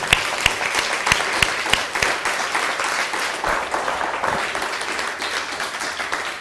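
A crowd applauds steadily for several seconds, dense overlapping claps forming a broad wash of noise with a few sharper individual claps standing out at the start.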